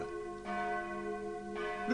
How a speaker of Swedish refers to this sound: Ring klocka, ring!